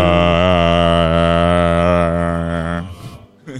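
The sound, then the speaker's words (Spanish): A voice imitates a ship's horn into a microphone, standing in for a broken horn, with one loud, low, steady honk held for nearly three seconds, then breaks off into a brief rough trailing sound. “La bocina se le dañó y tiene que hacerlo por el micrófono”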